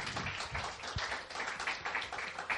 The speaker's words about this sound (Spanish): ¿Cuántos dan un aplauso? Aleluya.